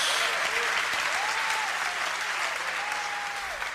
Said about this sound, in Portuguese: Pode dar salva de palmas ao Senhor, pode dar um glória a a Deus em nome de Jesus.